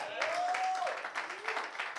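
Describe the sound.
An audience at a church service breaks into a steady round of applause for the Lord, many hands clapping in a dense, continuous patter, with a single sustained voice-like tone rising briefly over the clapping.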